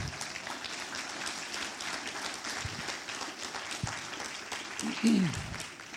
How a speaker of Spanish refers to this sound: ¿Cuántos dicen amén? ¿Cuántos le dan un aplauso fuerte al Señor?